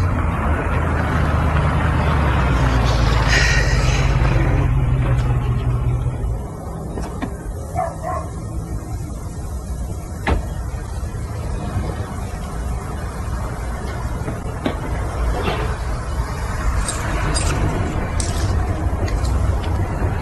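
A heavy truck engine rumbles, loudest as it pulls in, then settles into a steady low idle. A dog barks a few times in the background.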